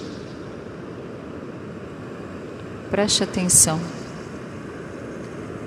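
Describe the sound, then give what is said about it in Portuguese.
A steady, soft wash of ocean waves rolls on throughout, an unbroken surf hiss, with a voice speaking briefly over it near the middle. “Os seus batimentos cardíacos estão no ritmo das ondas do mar.”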